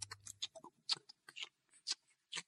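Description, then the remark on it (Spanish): A voice imitates a ticking clock with crisp tongue clicks, about nine quick pops in a slightly uneven rhythm over a couple of seconds, with no talking. “Y así eh, pasamos 10 minutos más invitando un reloj.”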